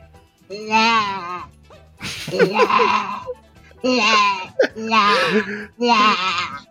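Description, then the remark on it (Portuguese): A voice imitates whimpering, crying sobs in several drawn-out wavering bursts with short pauses between, fairly loud, sounding somewhat like bleating. “Tá ali, tá chorando no supermercado, que coisa ai, feia.”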